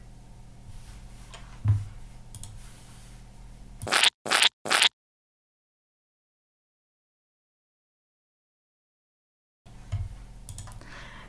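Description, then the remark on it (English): A toothpaste tube squeezed in three quick, loud bursts of squelching, with low background noise before and after and a stretch of silence between. “Die Zahnpasta. The toothpaste.”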